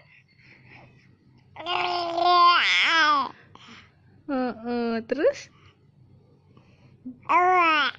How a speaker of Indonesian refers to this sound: Kamu juga mau podcast? Podcast cara bayi mengeluarkan suara.